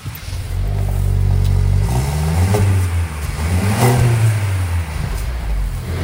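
The engine of a black Mercedes-Benz C-Class cabriolet idles with a steady low rumble, then revs up sharply twice, each rise in pitch followed by a drop back to idle. It is loud, with no voices.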